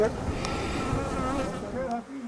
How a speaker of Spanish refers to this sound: Una vez que abrieron el hueco, miles de abejas llenaron el pequeño espacio del cuarto. La colmena había quedado expuesta. Era como si la pared estuviera viva. Hay más de 40.000 abejas. ¿Aquí? Aquí hay más de 40.000 abejas.